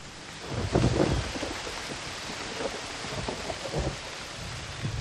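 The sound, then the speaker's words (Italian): Stormy wind gusts roar through steady, hissing rain, with a deep rumbling surge early on, then a continuous blustery wash that swells and eases without any voices. “Fulmini, tuoni, scrosci di pioggia, colpi e fischi di vento.”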